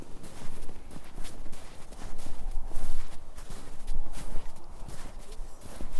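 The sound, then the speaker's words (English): Steady footsteps crunch across a gritty surface, one step roughly every half second, each landing with a coarse, grainy scrunch that carries on throughout. “Don't you just want to hear the sound of crunching?”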